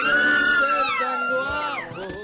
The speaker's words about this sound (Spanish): Pues ahí están los gritos, los gritos naturales cuando vamos a presentar a uno de los galanes de la tecnología.